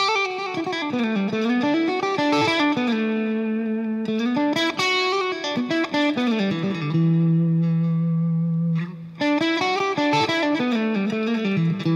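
An electric guitar with effects plays bluesy melodic licks with a blues note added in, bending and sliding through notes, with a sustained low note around the middle before the phrase resumes. No talking.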